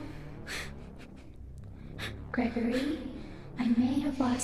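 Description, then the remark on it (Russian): Heavy breathing right against the microphone: a few airy inhales and exhales, then louder breaths that turn partly voiced and gasp-like. “А то мне странно, сейчас просто в наушниках сижу и кто-то дышит на ухо.”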